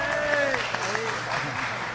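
An audience applauds steadily for the full two seconds, a dense wash of clapping with a few tonal sounds gliding over it near the start.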